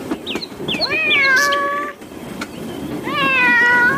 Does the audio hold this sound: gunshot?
no